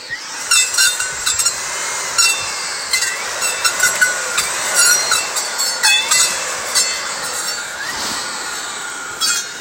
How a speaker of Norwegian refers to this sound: Se hvor god han er til å file saga si.